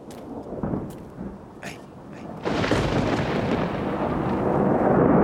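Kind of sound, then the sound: nature, thunder rumbling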